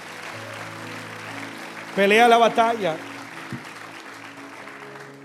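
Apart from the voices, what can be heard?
audience applause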